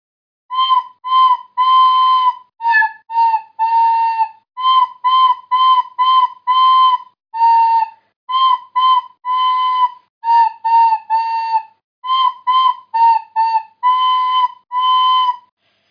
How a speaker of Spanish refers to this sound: oye, como es San Valentín, vamos a tocar una partitura.